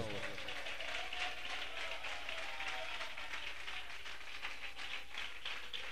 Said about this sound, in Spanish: Regálele palmas a Dios si lo sienten esta hora.